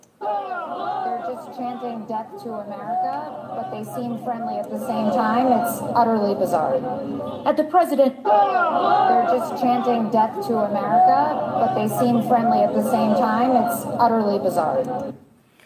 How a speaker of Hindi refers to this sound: नारे लग रहे हैं डेथ टू अमेरिका अमेरिका की मृत्यु